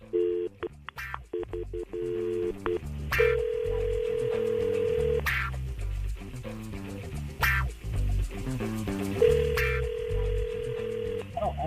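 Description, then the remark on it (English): Quick keypad dialing beeps, then an outgoing phone call to someone's mother rings twice: two long, steady, mid-pitched ringback tones separated by a pause, heard through a phone line. “We're calling your mom up.”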